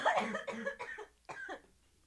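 A short run of about four harsh, rasping coughs, fairly loud, with a brief pause before the last one; no other sounds around them.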